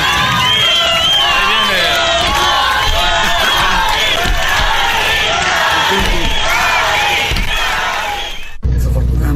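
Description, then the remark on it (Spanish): A rowdy crowd roars and shouts nonstop, many voices yelling over each other like a wrestling audience. The loud, dense din fills the space before cutting off abruptly near the end. “Oye, güey, parece de las peleas del santo, ¿no, De Ese ambiente.”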